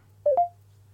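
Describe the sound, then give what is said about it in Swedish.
Two short telephone dialing tones beep in quick succession as someone phones a guest, clear and fairly loud, over a steady low electrical hum, with no voices. “vi eh, ringer upp Geijert”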